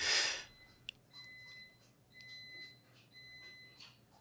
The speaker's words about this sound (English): Is there a dump truck backing up outside your window?